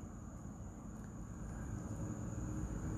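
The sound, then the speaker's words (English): A car approaches on a street in the Philippines at night, its low rumbling engine and tire noise gradually swelling in volume, with a faint steady high-pitched hum in the background and no voices. “There, uh, there goes a car, there goes a bike.”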